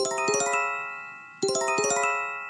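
A smartphone earthquake early-warning alert tone: a bright, urgent electronic chime pattern with sustained ringing notes, played twice in a row, loud with no voices.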